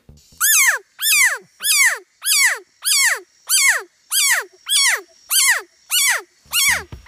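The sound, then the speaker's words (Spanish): A Leptodactylus pentadactylus frog (calf frog) repeats a loud, harmonic whooping call about ten times at a steady, even pace, each note sliding downward in pitch, with short silent gaps between calls and no voices. “La respuesta es C, una rana ternero de la especie Leptodactylus pentadactylus, quien hace este sonido particularmente cuando son alzados con las manos.”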